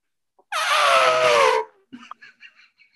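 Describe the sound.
A person imitates an elephant trumpeting: one loud, brassy blare lasting about a second that slides slightly downward in pitch, followed by a few faint, short sounds.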